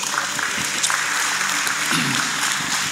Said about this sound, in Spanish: Lo que me encanta, un aplauso.